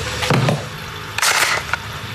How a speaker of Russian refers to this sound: Тульский Токарев, он же ТТ, сегодня один. Извини, очень быстро разбираю.